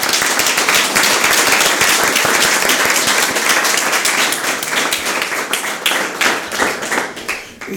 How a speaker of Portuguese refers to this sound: Eu acho que vamos bater palmas a todos por todas as perguntas e por todas as respostas aqui. Acho que sim.